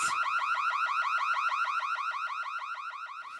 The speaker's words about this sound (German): Wir haben nur ein Alarmgeräusch gehört.